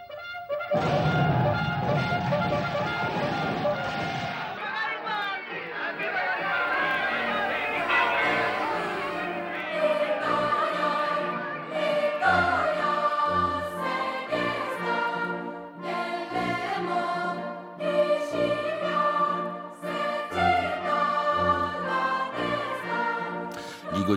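The Italian national anthem plays loudly and continuously, full tonal instrumental music with a steady marching pulse of low beats after a rumbling opening few seconds. No one speaks over it.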